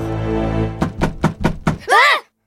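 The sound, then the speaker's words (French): Five quick, sharp knocks on the front window of a car in an even rhythm over a low steady hum, followed by a brief high, wavering squeak. “et alors que les enfants avaient les yeux rivés sur l'entrée du hangar, quelqu'un frappa sur la vitre avant de la voiture”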